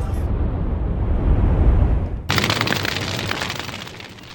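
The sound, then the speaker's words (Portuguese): A deep, heavy rumble builds, then a massive bomb blast, played as a MOAB bomb sound effect, erupts into a loud, sustained roar of crackling debris that slowly fades. No one speaks. “Solta a Moab Fogo no Muturo, Luciano.”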